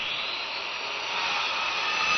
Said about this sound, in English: Kind of sounds like a skill saw.